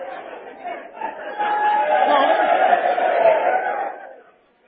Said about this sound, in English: What, what is the shouting about?